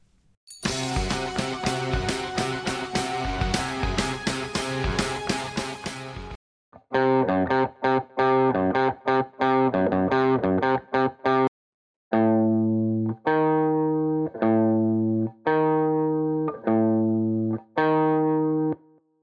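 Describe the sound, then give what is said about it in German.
A distorted electric guitar plays a tritone interval, also called an augmented fourth or diminished fifth and known as the devil's interval, first as a dense, buzzing riff, then as repeated sharp stabs in a steady rhythm, finishing with cleaner, ringing paired notes. No one speaks. “Tritonus, erhöhte Quarte oder verminderte Quinte. Es wird auch häufig als der Klang des Teufels genannt.”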